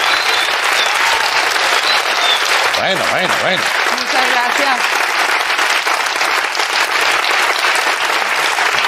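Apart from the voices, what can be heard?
long audience applause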